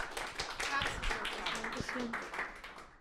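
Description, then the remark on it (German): A crowd applauds steadily for a few seconds as a speaker is welcomed and handed the microphone, a dense patter of many hands clapping at once with some faint voices mixed underneath, tapering slightly toward the end. “Applaus”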